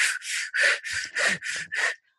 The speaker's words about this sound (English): I can make my breath go in and out at the pace that I want. I can take in the amount of air that I want. I have some level of control over my breath for a short period of time.